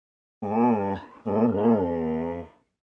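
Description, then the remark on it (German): Two drawn-out, rumbling growls, fairly loud with a brief pause between them, sounding like a person's voice imitating a dog's growl. “Das Tier knurrte.”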